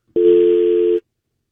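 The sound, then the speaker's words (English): A steady telephone dial tone hums loudly and evenly for just under a second, then cuts off abruptly into silence. No voices are heard. “I heard a dial tone.”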